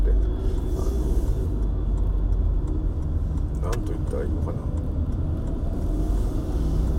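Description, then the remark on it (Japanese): Steady low engine drone and road rumble fill a moving car's interior throughout, with a man seated in the car talking over the continuous noise and a faint jingle partway through. “例えば私が今座ってる車のシート、このシート私を今支えてますよね。”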